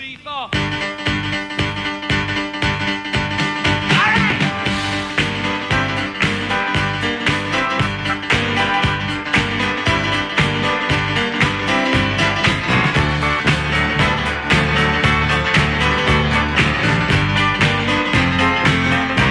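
A 1970s rock record plays at full volume, with drums keeping a steady beat under dense guitars, bass and keys. The music runs continuously, with no one talking over it.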